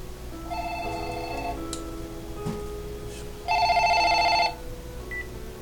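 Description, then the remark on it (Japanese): A telephone rings in two electronic bursts, a steady tonal trill around half a second to one and a half seconds, then a louder one a couple of seconds later, over a quiet background hum. “電話じゃないですかちょっと待ってくださいね”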